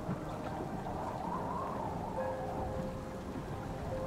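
A thunderstorm with heavy rain pouring down in a dense, steady roar, low rumbling underneath, loud throughout with no voices.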